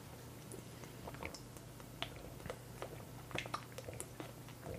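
Quiet mouth sounds of someone drinking still water: soft wet clicks and gulps of swallowing at irregular intervals over a low steady hum, with no talking.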